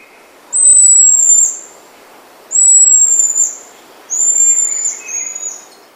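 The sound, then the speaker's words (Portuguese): Three long, high, thin whistled calls, each about a second, steady in pitch with a slight drop at the end, repeating at a slow pace over faint background hiss. The calls are of the mico-estrela marmoset (Callithrix) and the golden-headed lion tamarin (Leontopithecus). “Toca o mico estrela e toca o mico leão da cara dourada.”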